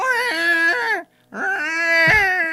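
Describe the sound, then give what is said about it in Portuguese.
A person imitates a calf's bleat with two drawn-out, nasal, wavering cries, each about a second long, separated by a short pause, with the second rising and cracking at the end. “E aí, imita o bezerro.”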